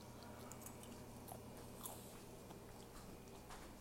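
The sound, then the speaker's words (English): Wet chewing and biting into the microphone as someone eats dinner, a steady run of soft crunchy mouth sounds over a low hum with no talking. “That's great radio, me chewing into the microphone.”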